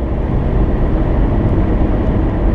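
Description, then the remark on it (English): A loud, steady low rumble of a large vehicle pushing through traffic, engine roar filling the scene without a break, with no voices. “So I get very affected by traffic.”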